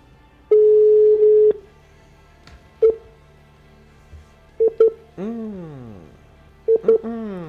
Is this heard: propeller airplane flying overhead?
no